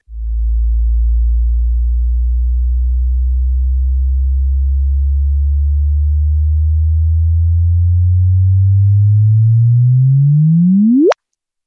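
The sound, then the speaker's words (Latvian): A single low, pure tone hums steadily for about ten seconds, slowly rising in pitch, then sweeps sharply upward into a brief high chirp and cuts off abruptly: a gravitational wave signal registered by gravitational-wave detectors and converted into audio. “Tā kā ir arī tāds variants, ka tādas svārstības var pārcelt uz eh, akustisko formātu un arī noklausīties, jā, kā tāda perfekta pīkstiena.”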